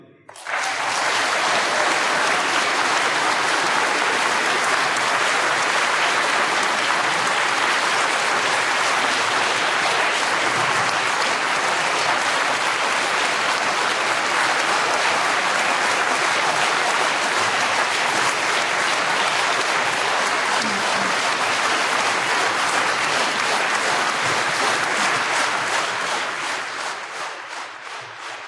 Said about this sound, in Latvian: Pēc viestura kairiša runas skaļa aplausi turpinājās veselu minūti.